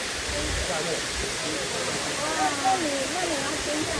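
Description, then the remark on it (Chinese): A waterfall rushes in a steady, dense roar that stays even throughout, with faint voices murmuring underneath, as people approach the waterfall to listen to it. “来接近那个瀑布，来听这个声音。”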